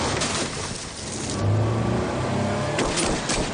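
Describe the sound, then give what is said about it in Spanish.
A car engine roars loudly, revving and accelerating with a strained, rising drone that peaks midway as the car escapes at full speed while an inspector shoots at it and runs after it, amid road noise. “El inspector comienza a disparar contra Milo y sale corriendo tras ellos, que escapan a toda velocidad.”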